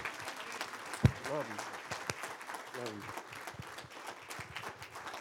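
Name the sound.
audience applause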